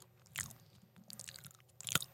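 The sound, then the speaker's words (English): Wet chewing of a small wrap with avocado and tomato, with crunchy bites around the start and a sharper crunch near the end, intermittent and fairly quiet, with no talking. “That's such a gross sound. What sound? your nasty chewing.”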